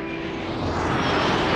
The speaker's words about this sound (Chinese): 飞机降落后。